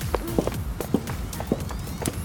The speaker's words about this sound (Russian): начинают перед кефиром шагать вот эти девчушки. Одна за другой. Цок-цок-цок-цок-цок-цок-цок.